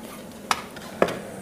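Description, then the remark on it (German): A utensil stirs cornstarch (Maizena) into a pot of boiling broth, with two sharp clinks against the side about half a second apart over a low steady simmering background. No voices. “Mein Sud, der kocht mittlerweile. Da rühre ich jetzt das Maizena rein.”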